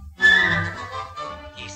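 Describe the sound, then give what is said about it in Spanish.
A brief, bright whistled note from the Disney film Pinocchio rises over a full, sustained musical backing near the start, then fades into the accompaniment. No one speaks. “Cuando estés en líos por tu bien o por tu mal, dame un silbidito.”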